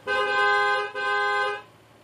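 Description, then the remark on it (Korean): A taxi's car horn honks twice in quick succession, a long steady blast broken by a brief gap, then another, fairly loud, with no voices, as a called taxi arrives at the Gamgyul Motel. “어, 콜테시 도착했나봐요.”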